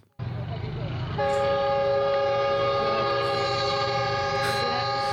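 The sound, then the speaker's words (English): A train rumbles along tracks that cross a street in Pakistan, then its horn blasts loud and steady, holding as one long continuous blare over the rolling noise until the end. “Train is coming.”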